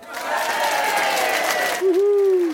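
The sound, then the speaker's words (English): A crowd applause sound effect celebrating a listener passing a general flying proficiency test: loud applause and cheering, dense clapping mixed with raised voices, and a single sustained shout rises above it near the end. “A big, uh, where's, where's the crowd? Here they are. They're all assembled and.”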